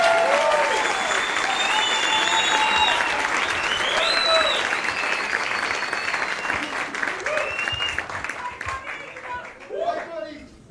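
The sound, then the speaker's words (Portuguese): An audience applauds steadily and loudly to welcome Neto, a dense wash of many hands clapping with scattered whistles and cheers, thinning out near the end. “Uma salva de palmas para o Neto, senhoras e senhores.”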